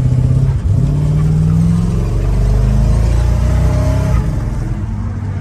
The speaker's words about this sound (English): Hey, I got a second gear chirp.